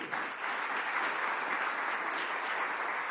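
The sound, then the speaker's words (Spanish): A church audience claps steadily for a few seconds as an applause for the living God, dense overlapping applause at an even, sustained level with no speech over it. “Dele un aplauso al Dios vivo.”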